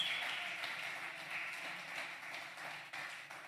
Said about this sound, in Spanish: Si va a aplaudir, aplauda al Señor con todas sus fuerzas.